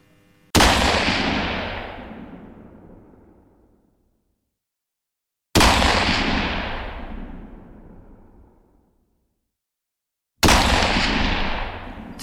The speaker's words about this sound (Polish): trzy strzały. Kto je oddał?